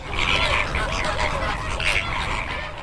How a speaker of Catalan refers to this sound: Entre una munió d'ànecs, per exemple, els ànecs colls verds, que és una de les espècies més característiques del delta i que van per les llacunes també allà, on, on hi ha aigua a menjar.